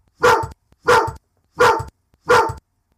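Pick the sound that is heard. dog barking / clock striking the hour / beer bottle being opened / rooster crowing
dog barking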